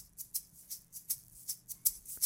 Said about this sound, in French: Petite maracas.